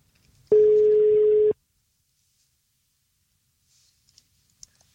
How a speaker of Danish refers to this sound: Jeg synes måske, hvad siger du til, at vi lige ringer øh, Flemming op i virkeligheden?